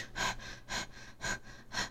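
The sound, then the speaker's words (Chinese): A voice imitates heavy panting: four quick, breathy huffs in a steady rhythm about half a second apart, each a loud, airy burst with short pauses between, and no talking. “我我觉得我不抖是因为我一直在喘气，因为昨天有一个听友就说，哎，你知道你昨天在录的时候一直在这样吗？”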